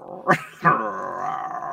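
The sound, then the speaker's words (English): A person's voice imitates a cat purring: a low, rumbling, throaty sound with two sharper onsets early on, then a steady sustained purr, moderately loud. “and then he holds the tiger's head in front of his own and then just kind of purrs for a minute.”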